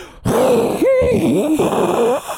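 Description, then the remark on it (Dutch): A single voice hums a continuous, wavering drone for about two seconds, imitating the steady roar of an airplane engine as heard from a seat next to the engine, loud with no words. “Ik, ik, keek in een vliegtuig, bij mij klonk het...”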